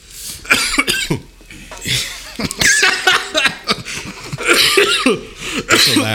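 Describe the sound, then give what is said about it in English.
A loud coughing fit after taking a pull of smoke: rapid, harsh, irregular bursts go on for several seconds, broken by raspy breaths and chuckle-like sputters. “Listen, for all my smokers out there, you understand that when you take a pull and you try to talk, sometimes you might catch like a air bubble in your throat, pause, and you start coughing, which is always a hilarious sight.”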